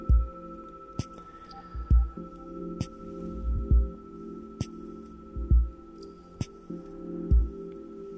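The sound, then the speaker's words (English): A meditation bell, gently struck once with a wooden stick, rings on steadily, a sustained humming resonance, while soft low thumps and faint clicks pulse underneath at roughly regular intervals. “I just only hit gently one time, but the sounds continue for a while like this.”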